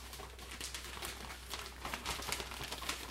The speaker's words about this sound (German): So, und jetzt hältst du mal bitte die Tüte einmal so, genau. Und ich schiebe mal die Keule rein.